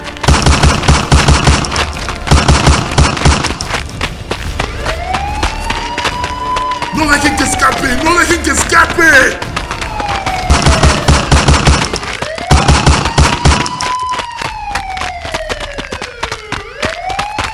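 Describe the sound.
Several guns fire in long, rapid, loud bursts, pausing and then resuming, while a siren wails and sweeps in between and a man shouts.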